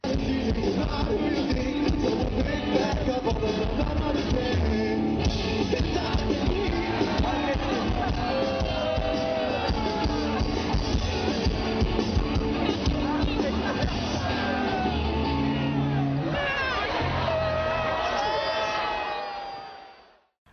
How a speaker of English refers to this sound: I hope to God the people booing then were booing the bottling, not the oh. band stopping because the singer has been knocked out. And you can hear it. There's like, I ah, believe, and then no more music, uh, no more singing.